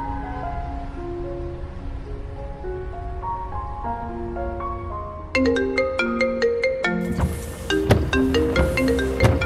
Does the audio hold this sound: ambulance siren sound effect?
no